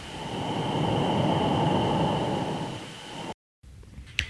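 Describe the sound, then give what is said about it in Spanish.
Sonified recording of Earth's hiss waves: a loud, dense whooshing hiss swells and slowly ebbs like the Earth breathing, with a thin steady whine above it, then cuts to silence before a fainter hiss returns. “Parecen, literalmente parecen como una respiración, como que si la, tierra estuviera respirando.”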